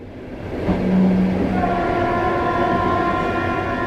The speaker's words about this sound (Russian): Но когда поезд трогается, все-таки дверь открывают.